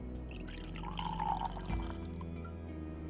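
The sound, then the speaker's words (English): Wine pours steadily into a glass for a few seconds, a gurgling trickle whose pitch climbs as the glass fills, with a soft clink midway. “More wine?”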